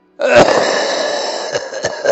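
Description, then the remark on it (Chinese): An old man coughs in a rough, wheezy fit, heard from ahead in the dark while walking towards a basement: a harsh opening bark, then a long raspy, breathy drag broken by a few more short coughs, fairly loud and with no talking. “一阵老头的咳嗽声从前方传来。”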